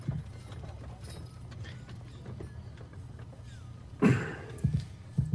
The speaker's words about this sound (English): Baron Song rides his horse up near her, forcing her out of his way.